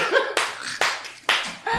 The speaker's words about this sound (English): Now we all clap though.